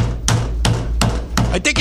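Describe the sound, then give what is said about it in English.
A hammer strikes about five times in an uneven rhythm, each hit sharp and fairly loud, with a steady low hum running underneath. “Where the hell is that hammer?”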